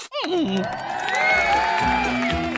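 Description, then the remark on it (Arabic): A crowd cheers and applauds loudly for a couple of seconds, a dense, steady wash of voices with rising whoops and shouts layered over clapping. “أين التصفيق والهتاف؟”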